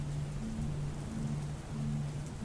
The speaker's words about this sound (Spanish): vamos a dormir en esta noche lluviosa. El cielo está cubierto de una tonalidad gris oscuro